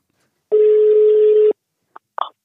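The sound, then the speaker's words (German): A telephone ringing tone on a call to the speaker's father: a single loud, steady mid-pitched tone lasting about a second, followed by silence and a couple of brief clicks, as if the call is being picked up. “habe ich meinen Vater nochmal angerufen, weil der da eine große Rolle gespielt hat.”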